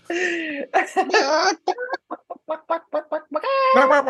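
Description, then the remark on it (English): A person imitates a chicken, with loud, drawn-out squawks at the start and end around a run of short, rhythmic clucks. “You're doing chicken noises.”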